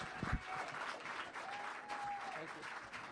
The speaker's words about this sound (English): Ladies and gentlemen, Nic Dundas. Round of applause.